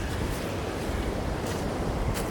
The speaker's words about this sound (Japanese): すごい波がこっちまで来ちゃったのでちょっと移動します